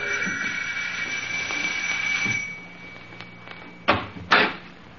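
A steady, buzzing doorbell rings at a house for about two seconds, then two sharp door thumps follow close together.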